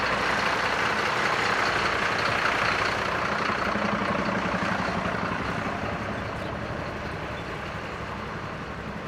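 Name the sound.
truck passing by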